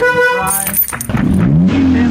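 A car horn honks with a strong, steady harmonic blare, followed by a brief clatter and the rising rumble of the car's engine starting up and revving as it sets off from McAllen, Texas, toward Brownsville.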